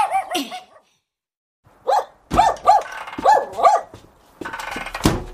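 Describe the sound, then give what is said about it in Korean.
A dog named Nangu barks repeatedly, a few sharp barks early, then a run of five or six loud, evenly spaced barks with brief growly edges between them. “아휴 난군이가 짖는 게 수상하네.”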